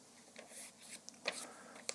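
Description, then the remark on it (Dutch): Quiet rustling and crinkling of a sheet of paper being folded in half, with soft scraping swishes and a few crisp creases snapping sharply, no voices present. “En nu gaan wij, jullie in uw hoofd, ik met dit echt papier, nu gaan we dubbel vouwen. Ik vouw één keer dubbel”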